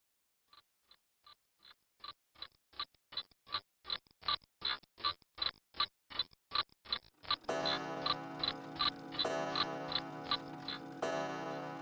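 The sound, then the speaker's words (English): A grandfather clock ticks in a steady, even rhythm, then begins striking twelve, with resonant ringing chimes layered over the continuing ticks; no voices are heard. “When the grandfather clock struck twelve, James suddenly woke up.”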